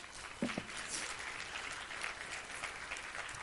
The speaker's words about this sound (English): Come on, clap for joy, somebody.